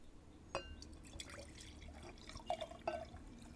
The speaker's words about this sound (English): you know what? Let me pour myself a glass of wine. I'll be right back.